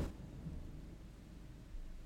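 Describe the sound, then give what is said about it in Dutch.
A low, steady rumble of thunder from a heavy thunderstorm rolls on for a couple of seconds, faint and muffled, with no voices over it. “heel erg onweer.”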